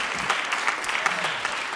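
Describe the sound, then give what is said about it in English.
An audience at Riverside applauds the worship team, a dense, steady wash of many hands clapping at a constant moderate loudness, with no voices standing out. “So give the team uh, just a, a hand clap, give God some praise because that was just awesome.”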